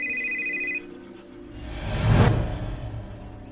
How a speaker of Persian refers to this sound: یه دفعه موبایلم زنگ خورد